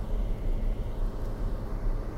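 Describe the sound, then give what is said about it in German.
A steady low rumble inside a moving car, with constant road and engine drone and no voices. “Und dann gibt es unseren Podcast, den ich einfach hier im Auto aufnehme, mit Hintergrundgeräuschen”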